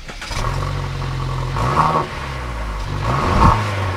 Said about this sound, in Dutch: dat is een heerlijke cabrio, waar we net heerlijk mee over het circuit zijn geweest